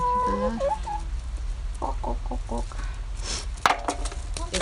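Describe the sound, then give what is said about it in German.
A grandmother's chickens cluck in short, repeated bursts over a steady low rumble, with a few higher squawks and a sharp clatter near the end as something is thrown onto a hen's back; no clear speech. “hast du das auf den Rücken des Huhns geworfen?”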